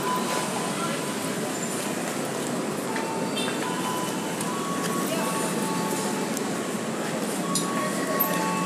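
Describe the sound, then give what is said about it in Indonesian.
Busy platform ambience at Cawang train station at nine o'clock: a steady, dense wash of crowd murmur and mechanical hum, with faint clinks and brief tonal whines scattered throughout at an even loudness. “ya, gue udah ngetip kartu ini memasuki peron nah, ini kondisi suasana di stasiun Cawang masih masih lumayan padat uh, ah, udah udah jam 9 tapi ya memang ini udah biasa seperti ini jam 9 juga masih masih padat”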